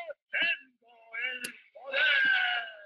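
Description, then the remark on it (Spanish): A cartoon hero's battle cry as he raises a sword and transforms: a few short shouted bursts that build into one long, loud, sustained yell, forceful, with a faint sharp hit partway through. “Era increíble, como que él levantaba una espada, gritaba”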